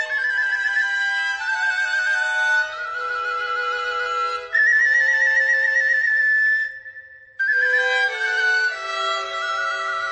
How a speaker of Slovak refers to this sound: Otlkaj sa, píšťa vrbová, keď ťa stočiem, budeš celá hotová. Píšťa lôčka hlásna, aby bola krásna, aby dobre pískala a na chlapcov volala.